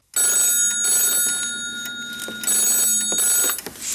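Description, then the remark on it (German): An old-style telephone bell rings in two long, rattling bursts separated by a short pause, loud, bright and metallic, with no voices over it, in a McDonald's McChicken advert. “Oh Mann, das verrückte Huhn ruft wieder an.”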